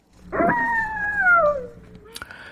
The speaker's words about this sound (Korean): 이게 늑대 울음이 아니라 여우라는데요. 여우 울음소리입니다. 늑대는 길죠, 소리가.